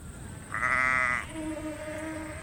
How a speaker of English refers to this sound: There are still some sheep here, though, and they're eating hay for dinner out the front of the veranda.